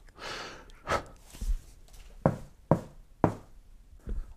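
Several distinct, sharp knocks on a door, arriving in an uneven rhythm with short pauses between them, against an otherwise quiet background.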